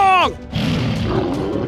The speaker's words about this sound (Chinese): 老虎们咆哮着冲了上去，咬住了敌人的屁股。